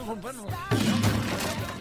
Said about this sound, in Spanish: ya se cayó la guitarra, cabrón, por andar.